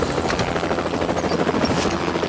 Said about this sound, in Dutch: We vliegen nu over de buitenwijk van Eindhoven eh, dat gaat heel erg snel met zo'n helikopter, moet ik zeggen.